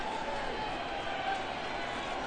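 A steady wash of simulated ballpark crowd noise, played for a simulated baseball game in an empty ballpark, a dense murmur of many voices blended into a continuous roar at an even level, with no single voice standing out.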